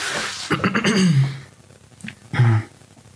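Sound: throat clearing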